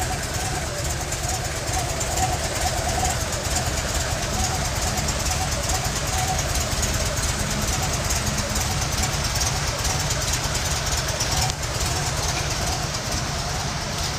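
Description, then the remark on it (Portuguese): A vintage car engine idles quietly and evenly, a smooth, steady low rumble with a faint hiss above it that holds without change for the whole stretch. “É um motor bem estável.”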